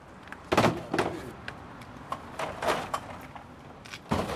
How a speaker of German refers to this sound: Draußen vor der Tür lädt der Bierfahrer seine Lieferung ab. Einen vollen Kasten nimmt er mit einer Hand und erzählt von einem Kollegen, der dasselbe mit fünf leeren Kästen tut.